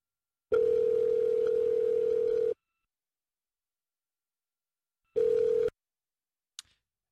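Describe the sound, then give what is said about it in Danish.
A steady telephone tone hums for about two seconds while a call is being placed, falls silent, then returns briefly before a small click cuts it off. The tone is clear, with no one talking. “Okay, så ringer vi til ham.”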